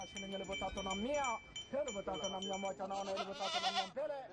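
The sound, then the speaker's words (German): Several goats bleat in wavering, overlapping cries, one after another, amid the murmur of a crowd and background voices at a busy goat auction in Kenya, where camel handlers are bidding on a goat for dinner. “Die Kamelführer haben erstmal frei und ersteigern auf einer Ziegenauktion ein Tier fürs Abendessen.”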